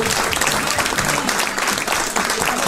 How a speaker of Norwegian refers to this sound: Eh, ta og Gi av med god applaus!